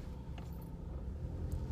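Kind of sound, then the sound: vehicle, car engine running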